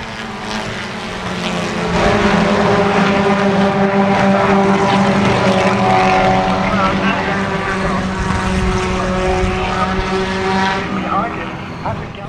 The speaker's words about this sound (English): They're back underway at the Michelin Pilot race, it looks like. Hopefully they don't wreck again.